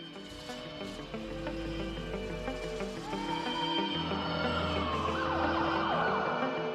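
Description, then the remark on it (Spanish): A band's latest single plays at steady volume, with dense sustained tones, a low bass drone and gliding, siren-like synth or guitar lines, all instrumental with no voice. “nos gustaría que suene nuestro último single, que se llama …, y suena de esta manera”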